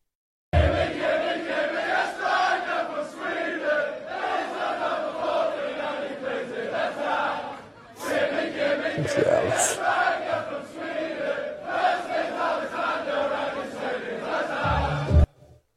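A crowd of football supporters sings a rhythmic chant to a familiar pop melody, loud and sustained with repeating phrases, pausing briefly midway before the massed voices resume.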